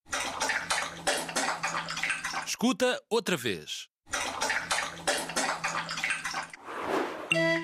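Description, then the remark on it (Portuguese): A dog laps up drinking water, a quick, steady run of wet splashy licks that pauses briefly while a voice speaks, then resumes just as loud. “E a resposta correta é. Um cachorro a beber água.”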